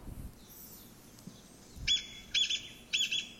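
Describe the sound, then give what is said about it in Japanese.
A Chinese bamboo partridge, a member of the pheasant family, calls in three loud, ringing bursts, each a quick run of piercing whistled notes, repeating at a steady pace against faint background noise. “これはですね、キジの仲間なんですね。あの桃太郎に出てくる記事ですけども記事の仲間の古樹慶という通りです古樹慶はいで、えー、これはですね聞きなし、まあ、人の言葉に置き換えたものを言うとですね、えー、ちょっと来いちょっと来いって言ってるように聞こえると”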